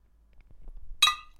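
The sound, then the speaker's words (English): A single bright clink of glasses touched together in a toast rings out sharply, decaying quickly, with faint low rustling and handling noise before it and no voices. “Always ready to go. Cheers.”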